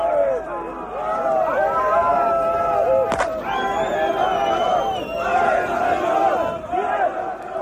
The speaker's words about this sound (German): Und so konnte man in Skopau eisern Unionrufe hören, wenn auch nur vereinzelt und in der Lautstärke der Bedeutung des Spieles angemessen.